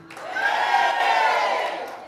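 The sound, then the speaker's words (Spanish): A church audience, urged by the preacher to rise up and roar, roars and cheers together in one loud, sustained burst of many voices, swelling slightly in the middle before easing off after about two seconds. “Pero hay una iglesia que se levanta a rugir.”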